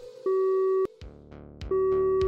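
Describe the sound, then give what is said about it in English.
A telephone line rings through the earpiece as a man calls an old friend: two steady electronic tone bursts, each about half a second long, separated by a pause, with faint clicks between them and no voices. “He picked up the phone and called a friend from the past.”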